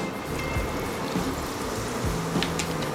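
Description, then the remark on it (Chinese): Sparkling water pours in a steady, gurgling stream into a passion fruit lemon drink, with a soft fizzing hiss and a few brief crackles of bubbles over a low, continuous rush. No one speaks. “如果你不希望它太甜，那你可以另外再加 哦，加一点 没有代言到的气泡水，”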